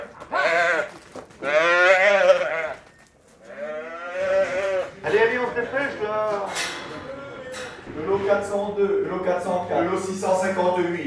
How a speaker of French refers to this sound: C'est typique à moi, ça, c'est mon son personnel que d'être habitué avec les agneaux, avec les moutons tous les jours. Hein. on fait ça ou on fait bah bah bah. Ils comprennent, ils comprennent.